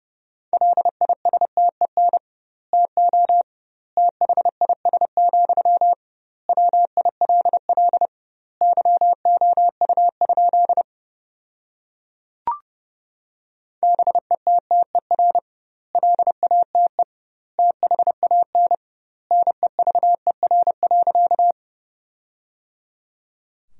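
Fast Morse code at 30 words per minute with doubled word spacing, sending sentences built from the 400 most common words, in a steady pure tone, rapid dits and dahs grouped into words with longer pauses between them, clear and loud with no voices.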